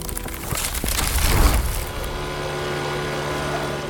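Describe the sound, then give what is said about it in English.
A plane going down: a loud roaring rush of engine noise swells to a peak, then settles into a steady, droning hum with no voices. “Well, remember at the beginning when you heard what sounded like a plane going down?”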